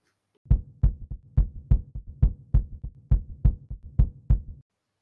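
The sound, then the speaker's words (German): A steady heartbeat thumps in paired lub-dub beats, about a dozen low, muffled pulses at a brisk regular pace, then stops. No voices are heard. “Wenn du bei mir bist, habe ich immer Herzklopfen. Dann zeige es uns. Das mache ich.”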